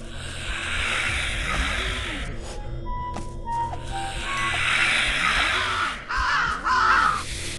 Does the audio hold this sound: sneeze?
no